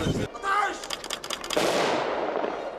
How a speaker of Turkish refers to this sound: Tarih 26 Ağustos 1922 Afyon Kocatepe'de gün doğarken saat sabah 5'te birbiri ardına top atışları yükseldi.